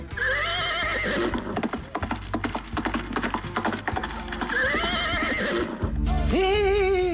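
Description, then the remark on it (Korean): A horse whinnies loudly at the start and again midway, over a steady, quick clip-clop of hooves; a final long, clear neigh rings out at the end. No voices. “어, 오늘 말소리가 아주 상쾌합니다.”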